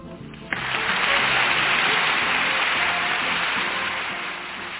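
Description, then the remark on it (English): A crowd breaks into applause to welcome a guest after a short quiet moment, a dense, steady wash of clapping that stays loud throughout and eases off only slightly at the end. “Gotta wait for the applause to die down.”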